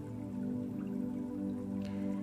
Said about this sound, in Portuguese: Se imagine se imagine deitando na grama e ouvindo o barulho da água corrente. Você pode ficar aqui durante o período que quiser, ouvindo a água e deixando o sol te tocar com seus raios dourados calorosos